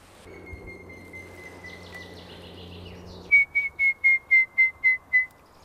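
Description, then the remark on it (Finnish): A person whistles an imitation of a grey-headed woodpecker call to draw the bird nearer in dense thicket: a long steady note, then a descending series of about eight clear, evenly spaced whistled notes, loud over faint background hum. “harmaa päätikka on kyllä sellainen laji, että sen aika herkästi saa lähistölle viheltämällä.”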